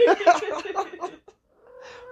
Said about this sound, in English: I'm still being stalked by this horny cat. Go away. Is the mic picking up her desperate now. Go away.